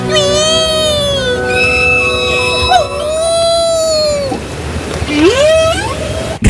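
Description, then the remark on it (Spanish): Long, eerie whale calls moan and glide up and down in pitch, overlapping in a sustained, resonant chorus with a low watery rumble beneath, ending on a rising, swooping cry. “Vuestras amigas las ballenas os vuelven a decir, por favor.”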